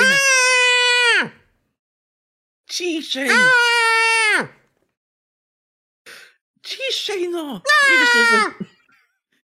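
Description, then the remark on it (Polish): An animal whines and squeals in several long, high-pitched, drawn-out bursts with short pauses between them, loud, while a person briefly speaks. “zaczęła piszczeć.”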